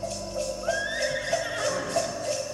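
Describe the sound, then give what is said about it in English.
A horse whinnies with a rising, quavering neigh over a steady musical backdrop, the call sliding upward and then trembling before it fades into the music. “You hear that reindeer? I hear. It's a very strange sounding reindeer.”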